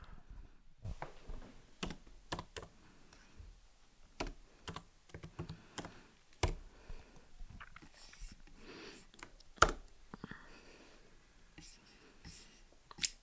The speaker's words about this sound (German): Ich wollte gerade äh, hier meine Tastatur aufnehmen, wo ich gleich ähm, Artikel eintippen werde